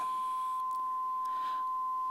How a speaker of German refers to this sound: Und wahrscheinlich nimmst du es auch immer noch wahr. Das Faszinierende ist, unser Hirn ist darauf geeicht, dass wir irgendwann diesen Piepston nicht mehr wahrnehmen würden weil wir unser, unser Piepsen ignorieren können.